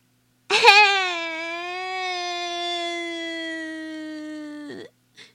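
A young child cries inside a house in one long, sustained, high-pitched wail lasting about four seconds, steady and fairly loud, ending with a brief catch of breath. No one speaks.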